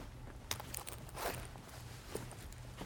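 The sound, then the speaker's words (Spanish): A woman's few soft footsteps sound at an uneven, unhurried pace as she walks to a bed, over a low background hum, fairly quiet, with no one speaking. “Ella se dirige a la cama donde estás tú”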